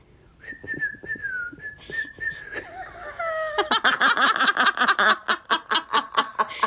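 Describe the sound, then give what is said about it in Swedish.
A person whistles a steady, slightly wavering tone, imitating someone whistling for the first time in his life, then breaks into rhythmic bursts of breathy laughter as the whistle falters. “Vänta ska jag försöka vissla.”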